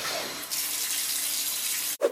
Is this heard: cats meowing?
no